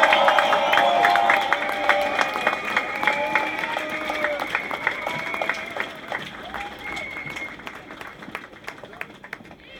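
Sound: crowd applause at rally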